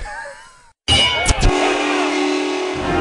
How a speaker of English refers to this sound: That was the foghorn of football fun on the pirate ship.